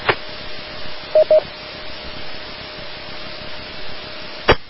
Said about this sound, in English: Hey, do we have anyone on the net who can uh, uh, decode an APRS signal?